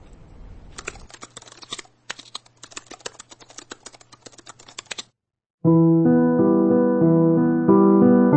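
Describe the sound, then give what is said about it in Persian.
Rapid clatter of laptop keys typing in irregular bursts for several seconds as someone starts up the laptop to play music, with a steady low hum beneath, then a pause before loud music begins. “بذار الان لپتاپ آتیش میکنم ما هم گوش کنیم”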